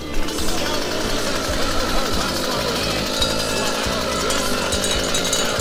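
A chainsaw runs steadily and loudly as it saws through an ox's horn, its harsh buzzing whine continuous for the whole stretch with a faint rhythmic chugging underneath and no breaks.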